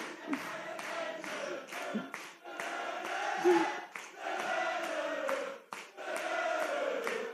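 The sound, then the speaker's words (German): A large crowd claps in a steady rhythm while voices chant or sing loudly along, with brief dips between phrases. “Ja, jetzt hört mal auf zu klatschen oder habt ihr ein anderes Programm irgendwie?”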